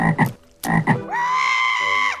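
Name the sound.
frogs croaking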